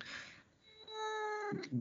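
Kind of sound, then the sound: animal, cat meowing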